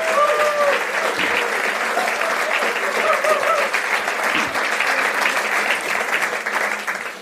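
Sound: audience applauding and cheering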